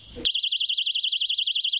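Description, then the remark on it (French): A personal safety alarm carried by restaurant staff in Nantes city centre starts abruptly and keeps shrieking in a fast, warbling rise-and-fall tone, loud, with a brief muffled rustle just before it begins. “Alarme, les petites bombes tolérées de gel de poivre pour déstabiliser en fait l'agresseur et partir.”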